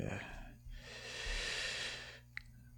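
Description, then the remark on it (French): A long, drawn-out sniff through a congested nose that breathes poorly, fairly loud, lasting over a second and ending with a small click; no one talks. “Ah oui, puis là, quand je renifle, vous le savez, c'est pas parce que je fais de la poudre un là, c'est parce que mon nez respire mal.”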